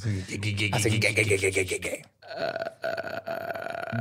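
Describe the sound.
A voice imitates the eerie noise a ghost makes at night: a drawn-out throaty vocal sound, a brief pause, then a rough, raspy, croaking stretch that carries on to the end.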